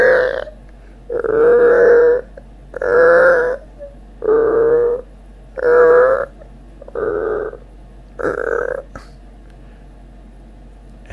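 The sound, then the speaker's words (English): A voice imitates creaky stairs as the characters of a children's story go down them in the dark, with seven loud, drawn-out groaning creaks, each under a second long, spaced in a steady step-like rhythm with short pauses between. “And so they went down the creaky stairs and”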